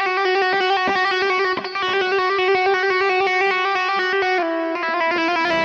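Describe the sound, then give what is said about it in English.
An electric guitar with a touch of distortion plays a steady run of picked notes, sustained, with bright overtones ringing over each other and no talking. “I'm using a little bit of distortion, right? Not way too much, but just a little bit to kind of get the action going”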